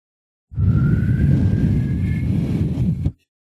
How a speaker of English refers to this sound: Really windy over there. Yeah, I mean, there's a lot of things blowing around.